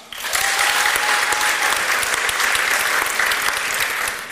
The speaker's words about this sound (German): Einmal in die Hände klatschen für Ja.